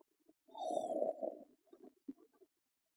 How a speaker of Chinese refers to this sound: 他睡着了，是我们害的吗？可能。他觉得我们很无趣吧？真没礼貌！他竟然还打呼噜呢！